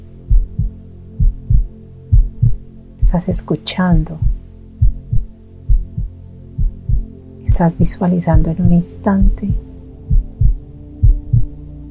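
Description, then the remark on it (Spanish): A steady, deep heartbeat thumps in a regular rhythm throughout a guided meditation, with a low hum beneath it, while a woman speaks softly in two brief passages over the beating. “Continúa ahí con tus manos en tu corazón, escuchando los latidos, con tus ojos cerrados.”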